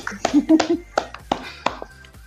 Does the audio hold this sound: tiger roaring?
no